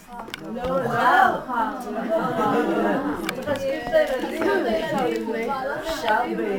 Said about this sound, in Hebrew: כי אני, אני שומע אוקיי. הרבה קולות וזה, אני ממש לא נעים לי.